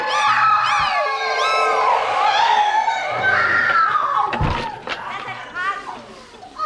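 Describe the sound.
Many high, wavering screams overlap loudly and continuously from a room full of screaming electric clocks, including a grandfather clock, like a chorus of shrieking voices layered on top of one another, with a brief sharp knock partway through.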